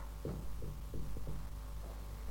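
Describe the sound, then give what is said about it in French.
Several dull, muffled knocks thud at irregular intervals, as if struck inside a wall, sounding low over a steady background hum, with no one speaking; the knocks, said to come from a spirit, count out the numbers of winning racehorses. “L'esprit s'exécute et frappe successivement le nombre de coups correspondant au numéro des trois chevaux gagnants.”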